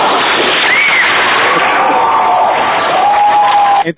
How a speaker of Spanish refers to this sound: tú tienes ya la tecla esa del aplauso que durante el debate nos vamos a aplaudir